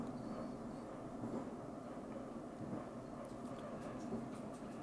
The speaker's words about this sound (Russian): Взвыла сирена, и поезд со свистом и грохотом рванул с места, мгновенно набрав скорость.